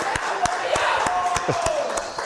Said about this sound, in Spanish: El aplauso para la Guayaba Monterrey, por favor.